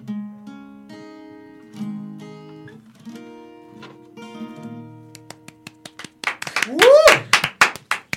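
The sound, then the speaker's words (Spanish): Studio applause breaks out after a stretch of sustained sung notes: a burst of brisk, loud clapping with a rising whoop of cheering over it, ending abruptly. “Nuestros aplausos aquí, pero también seguramente mucha gente de sus casas están diciendo, madre mía, no me puedo perder ese conciertazo.”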